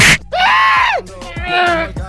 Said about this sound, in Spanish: Oye, el diablito ya no grita igual